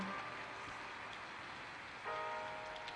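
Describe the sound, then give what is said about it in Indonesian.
Steady rain falls in a continuous hiss, moderately loud, with faint drips and taps scattered throughout and a brief tonal hum rising near the end. “di sini sedang hujan.”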